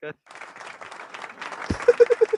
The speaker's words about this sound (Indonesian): tepuk tangan dulu tepuk tangan dulu